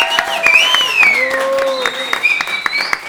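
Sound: applause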